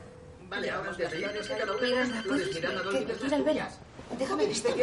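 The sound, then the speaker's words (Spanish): Carrie's mobile phone rings with a steady, melodic ringtone that keeps going for several seconds, fairly loud, with voices talking over it; Big is calling from his apartment. “Big marca desde su apartamento.”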